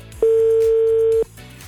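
A single steady telephone tone of an outgoing call placed by Rádio Vlna radio hosts to a listener: a flat mid-pitched beep held for about a second, sounding loud over quiet background music with no one speaking.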